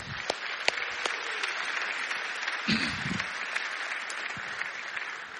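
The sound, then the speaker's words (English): A crowd applauds steadily for mothers, a dense wash of many hands clapping with a few sharper claps standing out, a brief cheer or murmur rising partway through. “Let's hear it for the moms.”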